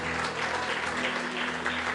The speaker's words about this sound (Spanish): Débele un aplauso al Señor, hermano, por su palabra, por su bendición. Aleluya, aleluya, aleluya.